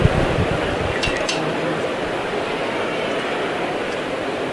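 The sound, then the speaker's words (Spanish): A processional float's knocker (llamador) strikes two or three quick metallic raps inside a brotherhood's chapel during a procession, fairly faint, nearly buried in a steady wash of crowd murmur and ambient noise. “Sonó el llamador en el interior de la capilla todavía.”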